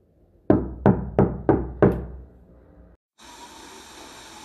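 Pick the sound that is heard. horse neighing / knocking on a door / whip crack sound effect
knocking on a door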